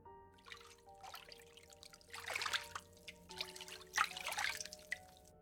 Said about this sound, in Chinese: 汤水声越来越近